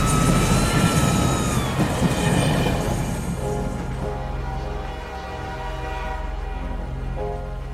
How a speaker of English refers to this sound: The piercing whistle echoed through the fog as the train dragged her crushed body down the tracks.